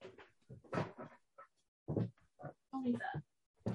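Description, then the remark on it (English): A dog named Vinny lets out a series of short, uneven yelps and whiny vocalizations in quick bursts, with brief pauses between them and no one talking. “It wouldn't be a Southside Sox podcast if we did not have some um, pet intrusion.”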